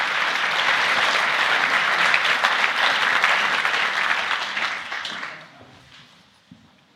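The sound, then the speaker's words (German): A crowd applauds steadily with dense, even clapping for about five seconds, then the applause thins out and fades away to near silence. “Ihren Namen müssen wir jetzt auch noch alle hören, damit Sie einen Applaus bekommen.”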